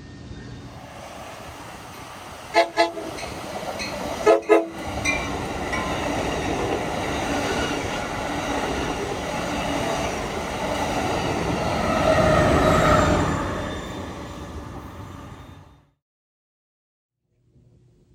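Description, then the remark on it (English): An L&N model train runs on a layout in the Santa Barbara area with a steady rumble, sounding two short horn blasts early on; the running noise swells briefly before cutting off into silence. No one speaks. “we're doing something train related today. I'm at Gary Siegel's L&N layout.”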